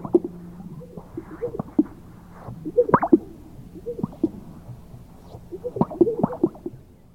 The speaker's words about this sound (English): Finally, chest sacs, sage grouse.